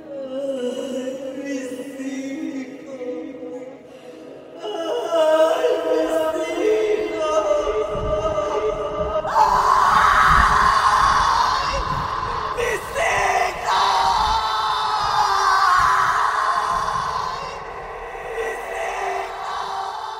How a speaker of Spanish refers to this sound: Y así, al disiparse la tormenta, en aquella noche iluminada por un tímido firmamento que observaba al hombre. Se escuchó hasta el pueblo el grito que ha producido terror por siglos y generaciones.